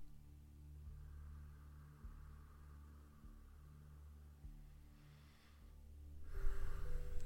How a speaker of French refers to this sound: on va faire quelques respirations un peu plus profondes et sentir, ressentir l'expansion au niveau de la poitrine. une belle inspiration. Et une troisième respiration.